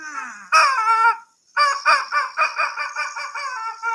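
Chicken clucking, loud: a short burst of squawky clucks, a brief pause, then a longer rapid run of rhythmic clucking with no talking.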